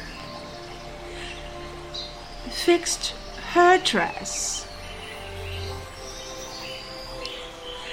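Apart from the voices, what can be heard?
birds chirping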